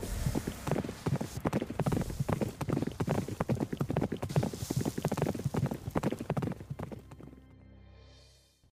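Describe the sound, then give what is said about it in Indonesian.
Rapid, steady clip-clop of the hooves of a horse ridden by a soldier at a brisk pace, loud, with a dense run of sharp strikes that fades out near the end. “hanya bisa melihat kakaknya yang diseret menggunakan kuda yang ditunggangi prajurit.”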